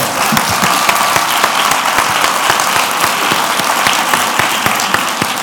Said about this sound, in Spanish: Y ahora es cuando yo sí que os pido, por favor, un aplauso